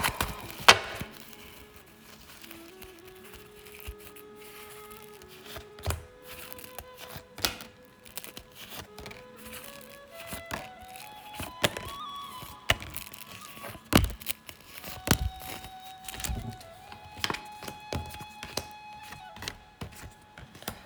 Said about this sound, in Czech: A já už se dívám na vaši fotku, míchám u toho karty a my se spolu podíváme, co nám Tarot poví.